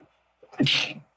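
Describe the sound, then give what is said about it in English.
A single sharp sneeze: a brief intake followed by an explosive, hissy burst that fades quickly, with quiet around it. “Bless you.”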